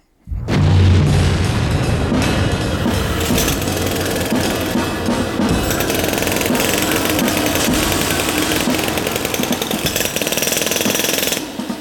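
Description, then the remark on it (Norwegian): A loud blast at a road construction site bursts in suddenly, followed by a long, heavy roar of rumbling and clattering debris that stays steady for about ten seconds. No one speaks. “Etter dette smellet er anleggsveien i gang for fullt igjen.”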